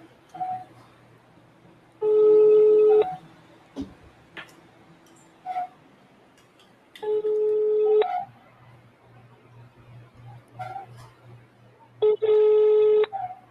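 A phone ringback tone sounds three times in steady bursts about a second long, spaced several seconds apart, with a faint hum and small clicks between rings, heard over speakerphone as an outgoing call goes unanswered.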